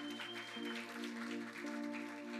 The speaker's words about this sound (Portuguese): Uma salva de palmas para os nossos voluntários, gente, mais uma vez aqui nos servindo.